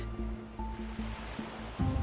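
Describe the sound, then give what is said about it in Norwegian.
Ocean waves wash steadily onto a beach in a continuous, rumbling hiss of surf, swelling a little louder toward the end, with no voices present. “Det hele begynner med at jeg er på stranden.”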